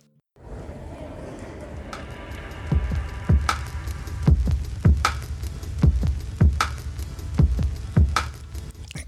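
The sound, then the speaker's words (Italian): Music with a bright, metallic high-pitched arpeggio running over a deep, booming bass drum that thumps steadily and repeatedly after the first few seconds, with no one talking. “sentite questo arpeggio sopra molto metallico, acuto e sotto tutto questa cassa molto grave.”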